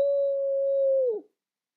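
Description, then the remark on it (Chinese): A voice imitates the eerie, frightening howl of predators: one long, steady, mid-pitched "oooh" held for just over a second, then sliding down and cutting off abruptly, with nothing else around it. “他们还会宣称，在刚过去的几个万籁俱静的夜晚，仔细竖起耳朵的话，可以听到这些恐怖的掠食者在黑暗的远方发出令人毛骨悚然的嚎叫。”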